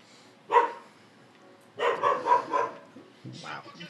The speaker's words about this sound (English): But our dog is annoying. Freaking out. I feel like when he gets older, he's definitely gonna grow out of that. Oh yeah, he's just being annoying now. But um, he, he's only a few months old